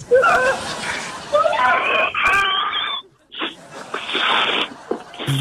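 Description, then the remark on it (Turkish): A voice imitates someone being sucked to death, making wet, drawn-out sucking and slurping noises, with strained moaning tones at first, then a short pause and a run of hissy, spluttering slurps. “Emmeye devam et.”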